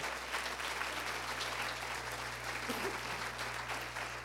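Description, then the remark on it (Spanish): A church audience applauds the Lord loudly during a sermon, a dense, steady wash of clapping from many hands that holds without pause, with a low constant hum underneath. “Apláudele fuerte al Señor.”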